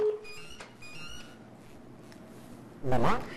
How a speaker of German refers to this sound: Entschuldigung, ich habe einen Alarm, den muss ich kurz bearbeiten.